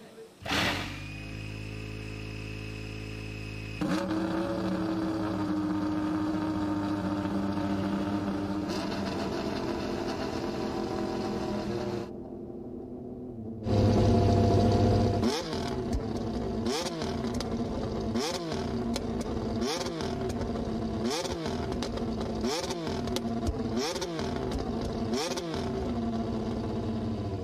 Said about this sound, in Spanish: Y vamos a escuchar, decirme si se escucha, por favor, el primer arrancón del motor McLaren, es decir, el McLaren del coche de 2022. Vamos a escuchar a esta belleza de V6 turbo de 1600 centímetros cúbicos.